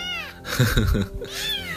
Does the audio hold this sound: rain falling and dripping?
no